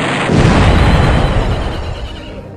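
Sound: bomb explosion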